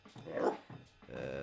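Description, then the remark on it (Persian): A dog named Aya growls and barks in two short, throaty bursts separated by a brief pause, with no one talking over it. “اینم صدای آیاست”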